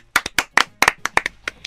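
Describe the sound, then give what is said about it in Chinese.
Around a dozen sharp, crisp hand claps in an uneven, quick rhythm, some landing in close pairs, fairly loud with brief silence between them and no talking. “英灵驱动率为百分之百，拍手。”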